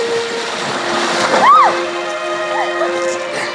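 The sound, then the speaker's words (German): Continuous splashing and sloshing water as a woman in a thin underdress runs from the shore into the water and a man rushes in after her, moderately loud, with a brief rising and falling tonal sweep partway through. “Dann zieht sie blitzschnell ihren Überrock aus und rennt ins Wasser nur bedeckt von einem dünnen Unterkleid.”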